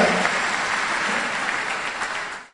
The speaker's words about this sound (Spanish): Y así que denle un fuerte aplauso y siempre denle las gracias por haber construido esto.